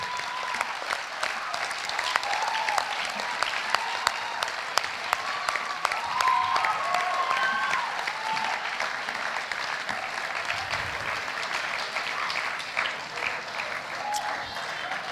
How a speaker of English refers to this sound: Let's applaud them all.